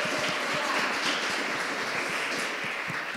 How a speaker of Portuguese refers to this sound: Ah, vamos aplaudir Jesus, irmãos.